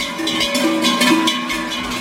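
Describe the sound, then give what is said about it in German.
Many bells clang together in a continuous, overlapping jangle, with bright metallic ringing and irregular clanks pulsing throughout. No voices are heard. Schoolchildren walk through a village in the Engadin ringing their bells to ring out winter on Chalanda Marz, Schellen-Ursli day. “Die Schulkinder ziehen durchs Dorf und läuten mit ihren Glocken den Winter aus.”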